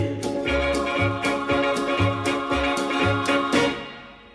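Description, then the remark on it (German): An upbeat German Schlager song plays at a fairly loud level, with a steady thumping beat and bright, full instrumentation that starts to fade near the end. “Wir haben das Lied gehört”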